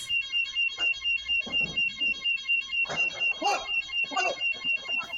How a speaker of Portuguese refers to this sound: Até que o alarme dispara.